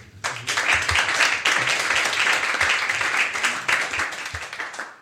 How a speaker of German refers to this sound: Und deswegen würde ich sagen, müssen wir uns erstmal selber applaudieren, dass wir hier alle an einem Mittwochabend um 20 vor 22 Uhr noch alle hier sind. Deswegen ein großer Applaus und alle nochmal wach werden, bitte.